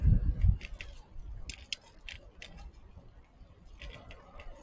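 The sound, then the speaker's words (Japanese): Bicycle gears shifting with a series of sharp clicks in small bursts, over a low rumble of wind, while riding in the morning by the Toyohira River on a windy day. “カチカチなるのはギアチェンジの音です。”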